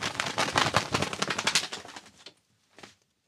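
A foley imitation of a small bird's wings beating, made with a cloth glove on each hand: a rapid flurry of soft fabric flapping runs for about two seconds, then a brief second flutter follows after a pause.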